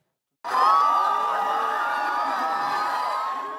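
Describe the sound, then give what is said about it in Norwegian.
A large crowd of supporters cheers and shouts at a political rally for President Uhuru Kenyatta in Uhuru Park, central Nairobi, as he stands in an open car waving. A dense, sustained roar of many voices with high whoops rising above it, starting abruptly and holding loud throughout. “President Uhuru Kenyatta ble mottatt med jubel da han på fredag møtte sine tilhengere i Uhuru Park i sentrum av Nairobi.”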